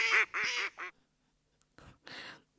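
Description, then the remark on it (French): A duck named Roger, in a bird flu surveillance zone, quacks loudly: three quick nasal quacks in a row, a short pause, then two raspier quacks. There is no talking. “Mais sinon, comment gère-t-on cette crise chez les canards et autres volailles Nous avons avec nous Roger, canard dans une zone surveillée.”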